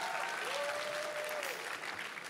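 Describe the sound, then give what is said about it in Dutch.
A crowd applauds steadily for a couple of seconds, a dense, even wash of clapping with no pauses, and a faint whistle-like tone gliding briefly through the middle. “Applaus.”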